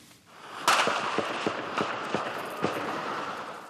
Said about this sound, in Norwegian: Det startet i går med skudd og granater da libyske demonstranter angrep det amerikanske konsulatet i Benghazi, og egyptere protesterte utenfor den amerikanske ambassaden i Kairo.